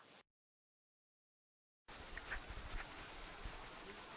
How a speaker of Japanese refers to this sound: お伺いした当日は激しい雨が降っていましたお店のすぐ隣を流れる奥日川も水量を増して川の音と雨の音が響く中での訪問となりました